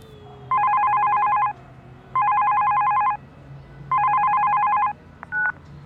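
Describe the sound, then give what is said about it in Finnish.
A telephone call to a doctoral thesis supervisor rings three times in steady, evenly spaced bursts of about a second each, loud, then a brief click as the voicemail picks up. No one speaks. “Hei, soitit väitöskirjaohjaajalle.”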